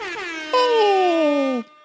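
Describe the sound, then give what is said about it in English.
A loud, blaring air horn sounds continuously for about a second and a half, its harmonic tones sliding slightly downward in pitch before cutting off abruptly, with no talking over it. “But of course, from a Nicky and Moose standpoint, air horns.”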